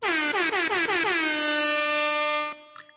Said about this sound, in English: Here's your air horn, Michael.